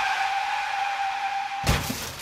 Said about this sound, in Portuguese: de 92 anos, bateu um carro no restaurante.